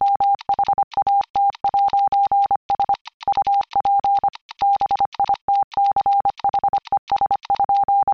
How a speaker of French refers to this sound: Pour vous donner une idée, juste dire What's up, bitches en code morse, c'est.